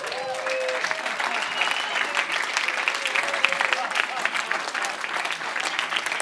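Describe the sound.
An audience applauds steadily for several seconds, a dense, even patter of many hands clapping, with a few faint tonal voice-like traces early on.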